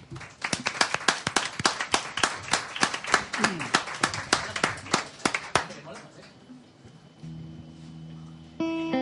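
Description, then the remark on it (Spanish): A concert crowd applauds a live band as it is introduced, with sharp claps that come in a fairly steady rhythm for several seconds, then fade as the band's music starts to play. “Señoras y señores, un aplauso muy fuerte”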